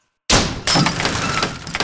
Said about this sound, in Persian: تا مادر این حرف زد انگار بابا نارنجک بود و ترکی در اتاق و آنچنان به هم کوبید که شیشه ها به صدا در اومد